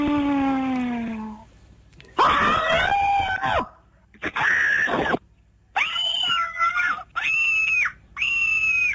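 A series of loud, shrill recorded human screams, the first screams from the Just Scream site, in several separate bursts with short gaps between them, each one sustained and piercing, with no talking.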